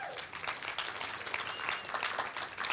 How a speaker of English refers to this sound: Give the Lord a hand clap.